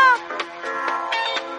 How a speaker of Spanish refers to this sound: sacaron una canción espectacular que suena así.